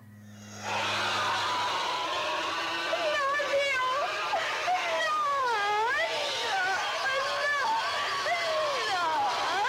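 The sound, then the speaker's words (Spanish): A piercing, unearthly alien scream from a 1976 horror film, made by a body-snatching alien pointing at a person, bursts in after a moment of low hum, then holds loud for about nine seconds, its shrill pitch warbling and swooping up and down without a break. “ya que los extraterrestres, en este caso, que se van metiendo en los cuerpos de las personas, te señalan con el dedo y lanzan un grito muy desagradable.”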